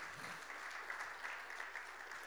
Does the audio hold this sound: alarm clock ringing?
no